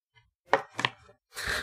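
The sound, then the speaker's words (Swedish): Book pages being flipped quickly while searching for the abilities section: two short papery flicks followed by a longer, louder rustling swish, with no one talking. “Vad fan, sitter och bläddrar som en galning här.”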